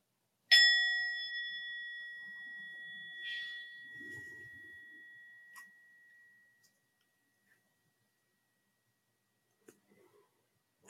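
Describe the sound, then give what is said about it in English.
A single meditation bell is struck once to begin a mindfulness practice, ringing out with a bright, sustained tone that slowly fades over several seconds into quiet, with a few soft rustles afterward. “But we'll, we'll begin the practice just simply with the sound of the bell.”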